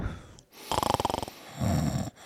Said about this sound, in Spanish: …, estás roncando.